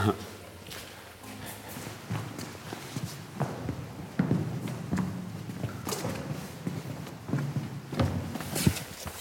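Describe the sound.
Irregular footsteps echo through the largest hall of a cave system, called the cathedral, about 60 metres long, each step ringing out with a reverberant tail, while faint voices murmur in the background throughout.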